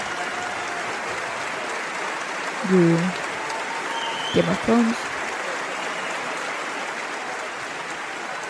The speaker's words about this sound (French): Et là, maintenant, je crois que c'est des applaudissements pendant 4 minutes. Voilà, le public du Grand Rex était ravi.